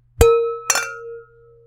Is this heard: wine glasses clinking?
yes